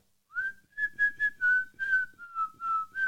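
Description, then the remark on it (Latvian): A person whistles a short melodic tune, a series of clear sustained notes gliding between pitches, with no talking. “Es, um, es nezināju, ka es varu šo nosvilpot tik precīzi.”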